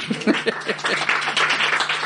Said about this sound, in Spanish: Un aplauso para la zafata, por favor.